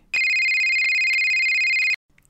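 A telephone rings once in a single loud, steady electronic trill lasting about two seconds, then cuts off abruptly into near silence with a few faint, soft noises.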